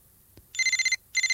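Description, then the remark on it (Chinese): Laoqi's mobile phone rings with an incoming call from Huahua: a bright, high electronic warble in two bursts of rapid pulsing tones separated by a short gap, loud and with no one talking over it. “手机响了，老七拿起了电话，是花花。”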